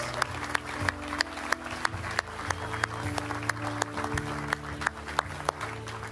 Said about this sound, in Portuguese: Podemos dar uma grande salva de palmas a todas estas pessoas.